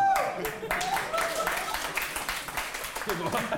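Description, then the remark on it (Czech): An audience breaks into sustained applause, a dense, steady wash of many hands clapping that holds at an even loudness for several seconds, with a voice or two rising faintly through the noise. “Občas se možná zamyslete, čemu tleskáte, ale děkujeme.”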